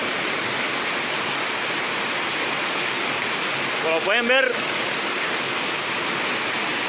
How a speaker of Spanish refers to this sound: Se presentó emergencia en el barrio San Antonio. Se metió el arroyo a las casas.